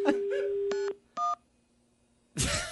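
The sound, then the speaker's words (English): Telephone keypad tones beep twice in short, separate electronic bursts, preceded by a steady tone and followed by a loud rustling clatter. No one speaks. “This phone has got a mind of its own. What's going on with this phone?”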